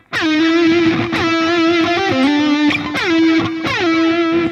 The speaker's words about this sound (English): So you pick the note, like so say the note I want to hit is this E. So what I do is I go higher up the neck to like, say over there, I pick it and then slide and stop when I get to the E. So … calls them laser beams.